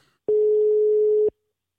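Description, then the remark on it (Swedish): A single steady electronic telephone ringback tone of an outgoing birthday call to Swedish football figure Bojan Djordjic sounds for about a second, loud, with a sharp start and stop, then silence. “Bojan Djordjic, ska vi ringa och säga grattis eller? Ja, men det gör vi.”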